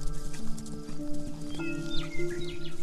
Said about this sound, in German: Doch plötzlich werdet ihr drei von einer Reiterin unterbrochen, die mit wehenden Haaren herangaloppiert.